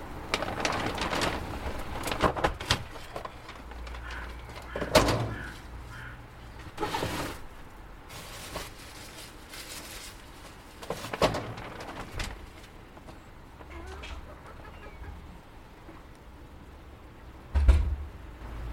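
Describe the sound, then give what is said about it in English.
Bantam chickens in a coop murmur and cluck softly while the coop is being cleaned out at the end of Storm Arwen, with scattered wooden knocks and clatters breaking in every few seconds; no one speaks. “So actually, it's quite fitting that I'm out here today at the end of Storm Arwen cleaning out the chickens.”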